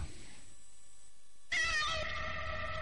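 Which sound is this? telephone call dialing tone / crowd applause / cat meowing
cat meowing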